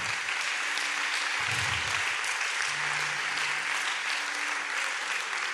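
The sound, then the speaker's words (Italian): An audience breaks into sustained applause for the Lord, a dense, steady wash of many hands clapping at an even loudness throughout, with no speech rising above it. “Facciamogli un applauso al nostro Signore.”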